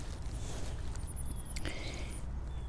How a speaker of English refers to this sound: You hear someone chopping, I guess maybe chopping wood or something.